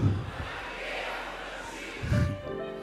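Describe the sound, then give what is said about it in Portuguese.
A large audience shouts together in unison the Portuguese phrase 'não é um enterro, eu estou plantado' in one loud, sustained roar of massed voices, swelling briefly near the start and again toward the end, with no single clear voice standing out. “Eu quero que você grite para o diabo ouvir: não é um enterro, eu estou plantado.”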